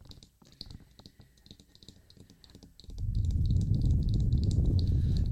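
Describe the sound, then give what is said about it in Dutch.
Soft tapping and clicking of a woman's fingernails on a hard surface in an ASMR recording, then a loud, rushing blow of her breath straight into the microphone that roars steadily to the end. “Zij blaast nu in je oor. Nee, in de microfoon.”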